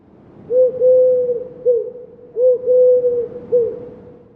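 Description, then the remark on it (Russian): A rock pigeon gives two hooting coo phrases in a row, each a soft rolling oo-goo-goo of low, breathy notes, fairly loud with no other sounds around. “Но на самом деле, кстати, сизые голуби тоже похожие звуки могут издавать такие у-гу-гу.”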